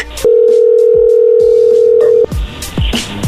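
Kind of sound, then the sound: signal or alarm, telephone dialing tone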